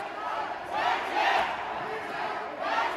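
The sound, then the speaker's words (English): A crowd of Chinese investors protesting in the foyer of Evergrande's headquarters in Shenzhen, China, shouts together in loud, overlapping waves of raised voices, "Where is our money?" and "Give us our money back", swelling and surging in rhythmic bursts of chanting. “These people are shouting, Where is our money? and give us our money back.”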